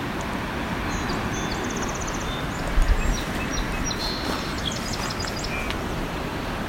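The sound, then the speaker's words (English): Faint song sparrow phrases, a few quick high notes and trills, over a steady, loud rushing background like wind or water, at a bay shoreline. No one speaks. “That's a song sparrow.”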